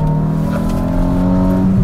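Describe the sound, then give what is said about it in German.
A car engine hums loud with a steady droning tone, then its pitch briefly shifts near the end as the car automatically blips the throttle to match revs during a gear change. No one speaks. “Und das Zwischengas geben, das macht übrigens nicht ich.”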